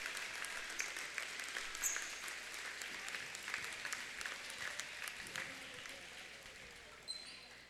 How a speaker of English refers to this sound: Standing ovation from the Mooney crowd.